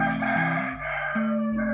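A rooster crows loudly, one long continuous cock-a-doodle-doo with shifting pitched steps, heard on its own with no talking over it.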